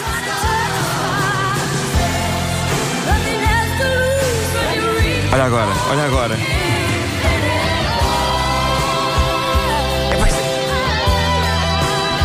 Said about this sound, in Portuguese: e não pode ir mais longe, ainda tem uma explosão elétrica de guitarras que parecem chorar no fim. Põe lá, põe lá a parte, assim, a parte mais final, que é incrível.